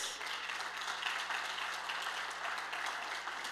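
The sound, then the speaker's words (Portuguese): An audience bursts into sustained applause for Jesus, a dense, steady wash of many hands clapping at once with no pauses, fairly loud throughout, and no one speaking over it. “Então aplauda Jesus.”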